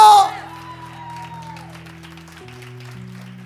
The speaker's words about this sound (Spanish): Y no solo me voy a regocijar, voy a celebrar con pandero, con danza, con chofar, con aplausos, con vítores, con loor, con palmas sobre mi cabeza. Vamos, alguien se atreve a aplaudir por encima de la cabeza, vamos.